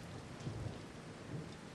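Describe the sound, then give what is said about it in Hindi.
Steady monsoon rain, heard from a balcony, pours down in a dense, continuous hiss with a soft low rumble beneath it, fairly loud, with no voices. “balcony में बैठा चाय लिए सोच ही रहा था तभी बारिश ने छोटे बच्चे की तरह गले लगा लिया मुझे लो शुरू हो गया इसका इमोशनल ब्लैकमेल”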